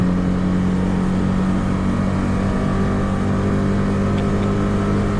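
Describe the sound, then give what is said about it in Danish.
A DAF car engine revs hard to 8,000 rpm in fifth gear and holds at a high, steady pitch, a loud continuous buzzing drone with a strong harmonic whine that barely changes throughout, with no talking. “Og det er 8.000 omdrejninger. vi er helt op. Der er jo godt brugt 5. gear.”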